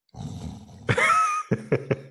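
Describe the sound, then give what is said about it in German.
A voice imitates snoring: a low rattling inhale, then a louder rasping snort with a nasal, roaring edge, followed by three short, evenly spaced snorting grunts. “schnarchen”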